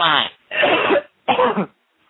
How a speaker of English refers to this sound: Take a deep breath and cough them all out now. Come out right now.